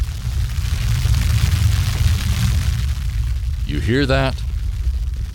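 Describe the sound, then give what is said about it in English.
A deep, continuous underground rumbling and crackling, a sound effect of plant roots growing, holds steady and loud throughout, with a man briefly speaking over it near the end. “That's the sound of your roots growing where they've never gone before.”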